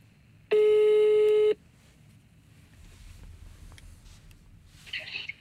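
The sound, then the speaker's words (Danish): A single steady ringback tone of an outgoing phone call placed from a studio sounds for about a second, loud and clear, followed by several seconds of quiet line hiss while waiting for the next ring. “lad os prøve. Jeg, øh, jeg giver ham et kald.”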